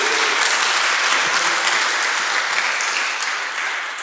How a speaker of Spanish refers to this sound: Ahora dele un aplauso al Señor.